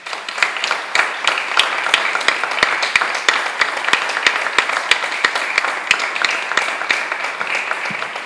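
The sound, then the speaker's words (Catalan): A crowd applauds steadily in tribute to those who came before and to the past, present and future struggle of the LGTBIQ+ collective, dense overlapping claps forming a sustained, fairly loud wash of noise with sharper individual claps standing out throughout. “Per tant, us demano que per totes aquelles que ens han precedit, per la lluita del col·lectiu LGTBIQ+, passat, present i també futur, fem un aplaudiment.”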